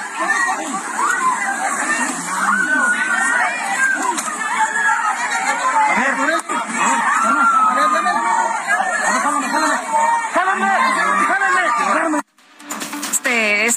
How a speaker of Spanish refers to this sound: No sé si usted ya vio el, el, video, pero es impactante. Los audios ahí se escuchan los gritos, la desesperación de las personas.